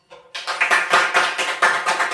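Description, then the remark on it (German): Audience applause starts abruptly after a brief quiet moment, a dense, steady stream of many hands clapping with sharp, bright pulses throughout, loud and sustained with no voices. “Ich denke, jetzt ist Zeit für Applaus.”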